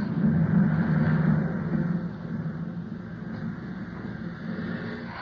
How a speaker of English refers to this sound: Oh, we're over land. He's bringing the plane down.